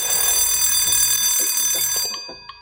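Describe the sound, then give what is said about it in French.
A mechanical alarm clock, with a crank and a mechanism for setting the ringing time, rings loudly with a rapid metallic bell clatter for about two seconds, then stops abruptly, leaving a couple of faint ticks. No one speaks. “Un mécanisme permet de régler l'heure à laquelle on veut que ça sonne.”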